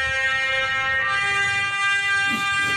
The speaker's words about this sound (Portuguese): Isto é o toque telemóvel da Luísa, pouca gente sabe disso, claro. Sempre que lá alguém liga é isto que se ouve.